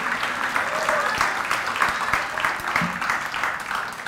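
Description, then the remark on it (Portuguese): An audience applauds to praise the Lord, many hands clapping in a dense, crackling wash of sound that stays loud and even throughout, with faint voices mixed into the clapping. “Louve ao Senhor, exalte ao Senhor, aplauda ao Senhor, glorifica a Jesus porque nessa batalha você não está sozinho.”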